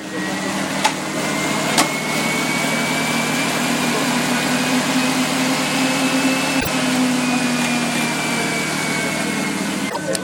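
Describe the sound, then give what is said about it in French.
Bicycles spin on home trainer rollers as racing cyclists warm up beside a team bus before the start of a time trial at the French championship, a steady, droning mechanical whir whose pitch drifts slightly, punctuated by a few sharp clicks, while voices murmur faintly in the background. “Allez, nous voici au départ du contre-la-montre, au pied du bus Vital Concept, avec le bruit des vélos sur les home trainers, si caractéristique de l'échauffement des coureurs.”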